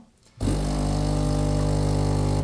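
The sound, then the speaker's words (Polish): After a brief quiet moment, an espresso machine's motor starts up into a loud, steady mechanical drone with a buzzing, tonal hum that holds evenly to the end, as the machine moves freshly ground coffee into the brewing unit and builds pressure (15 bar). “Teraz przerzuca kawę do zaparzacza.”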